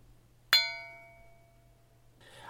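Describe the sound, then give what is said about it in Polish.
A single strike of a small bell rings out clearly, its bright tone sustaining and slowly fading over about a second in an otherwise quiet room with a faint low hum. “To nie jest tylko tak, że cały czas, całą godzinę patrzą na mnie Państwo, na moją gadającą głowę, ewentualnie z dzwoneczkiem”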